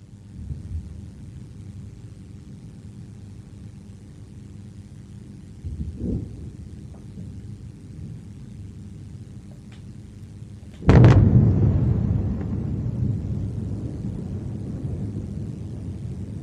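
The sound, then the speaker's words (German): Airstrike explosions in northern Gaza, heard from Gaza City, over a steady low rumble: a muffled thud first, then a much bigger boom that cracks out sharply and rolls on as a long, heavy rumble. “Big, another big, big explosion.”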